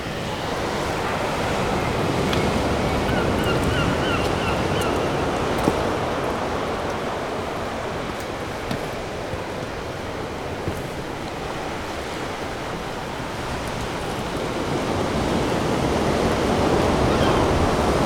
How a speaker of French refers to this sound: et l'océan résonne à vos oreilles.